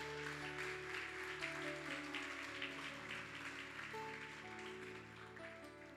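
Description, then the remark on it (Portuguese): An audience claps steadily for several seconds to the name of Jesus, a dense wash of many hands applauding together over a sustained low musical drone, with no voices standing out. “Alguém pega e pode aplaudir ao nome de Jesus?”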